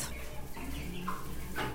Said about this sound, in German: Die Hühner des Instituts für Virologie und Immunologie in Mittelhäusern, kurz IWI, sie sehen aus wie ganz normale Hühner. Weißes Gefieder, roter Kamm und Halsbehänge, der Gückel sticht hervor.